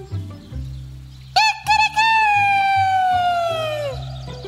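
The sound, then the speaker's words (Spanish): A rooster crows once, loud, in a forest: a couple of short clipped notes, then a long drawn-out call that trails downward, over soft, steady low background music. “¿Qué hace un gallo aquí? preguntó el perro.”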